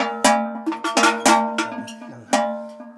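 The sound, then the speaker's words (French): Several large cowbells, the kind put on cows only for the climb up to the mountain pasture, clank in an uneven, jostling rhythm, each loud strike leaving a resonant metallic ring that overlaps the next. No voices. “Mais c'est parce que c'est des cloches qu'on met vraiment que pour monter à la montagne.”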